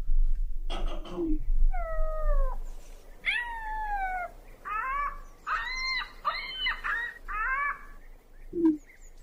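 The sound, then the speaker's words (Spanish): An ostrich gives a string of nasal, wavering calls, some rising and some falling, in quick bursts with short gaps, clear, with a couple of soft thumps at the start and end. “El sonido, eh, escúchenlo, es una avestruz.”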